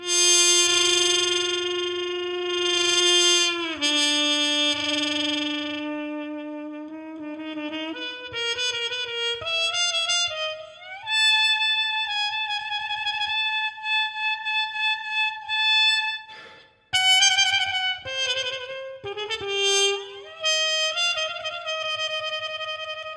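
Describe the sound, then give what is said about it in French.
A trumpet with a Wheezy harmon mute plays a slow, wandering melody with a buzzy, nasal tone, bright and reedy in the upper register, held notes bending and sliding between pitches with brief breaths between phrases. “là, c'était la Wheezy. Exactement, la Wheezy. Donc c'est une sorte de sourdine harmone.”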